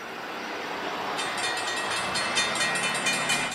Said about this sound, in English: The train is coming. It's time. I will get to my train nice and easy.